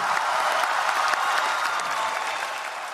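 A large crowd at the Paris climate conference applauds steadily as the Paris climate agreement is accepted, a dense wash of clapping that stays loud and even throughout, with faint cheering mixed in and no speech.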